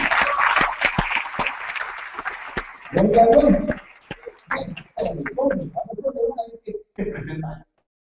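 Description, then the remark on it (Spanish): A loud burst of applause, dense crackling claps for about three seconds, then it fades and people start talking. “Un aplauso fuerte.”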